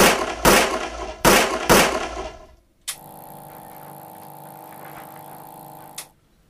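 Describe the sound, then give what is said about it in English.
Four loud gunshots fired at a target at a gun range, in two quick pairs, each cracking sharply with a ringing tail, all hitting the same spot, followed by a steady droning hum that ends in a click. “The only instructing I've seen Instructor Miller do was when he joined them at the gun range.”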